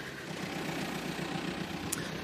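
A large van's engine runs steadily, a continuous low rumble with a broad mechanical hum, briefly topped by a short high-pitched squeak near the end. No one speaks.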